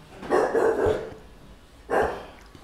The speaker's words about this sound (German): Der Hund bellt.